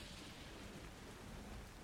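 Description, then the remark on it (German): Steady rain pours in a dense, even hiss while a low rumble of thunder rolls underneath, a continuous storm in the open among trees, with no voices. “Sind wir hier sicher? Bei so. diesem Sturm.”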